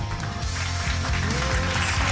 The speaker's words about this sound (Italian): E intanto facciamo un bel applauso al nuovo follower.